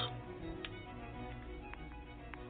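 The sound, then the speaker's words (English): Bourbon pours steadily into a glass for a couple of seconds, with a few light clinks of ice against the glass scattered through the pour, fairly quiet. “That's a lot of bourbon poured in that glass, dude.”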